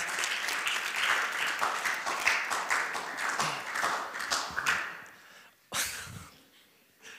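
An audience at a sermon applauds to thank the person who made the design there, with dense, steady clapping for about five seconds, then it thins out to a few scattered claps before fading, with no talking over it.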